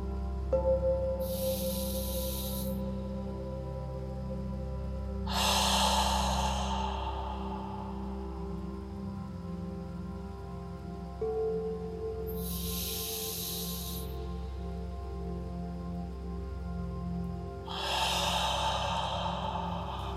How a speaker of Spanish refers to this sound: Y exhalamos por la boca dejando salir todo el aire, con una sensación de alivio y de soltura. Vamos a hacer esto tres veces.